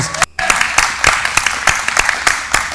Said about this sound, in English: He was approved to open up a Snap Fitness. Let's give him a round of applause.